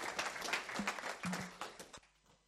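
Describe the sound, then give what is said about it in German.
A church audience claps in a dense, steady burst of applause for about two seconds, welcoming the day's preacher, then the clapping quickly thins out and fades away. “So einen kräftigen Applaus.”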